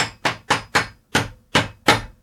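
hammering

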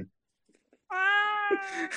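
cat meowing

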